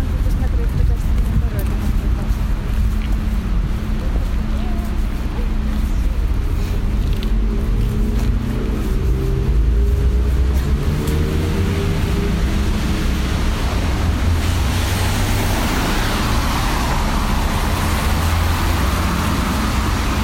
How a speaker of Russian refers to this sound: Поезд